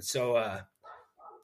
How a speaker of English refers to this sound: I'm sorry if you can hear my dog barking.